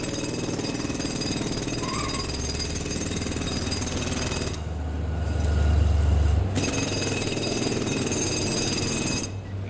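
A power chisel hammers steadily into a wall with loud, dense rattling. It briefly eases to a deeper, heavier rumble midway before the harsh chiseling resumes. No one speaks.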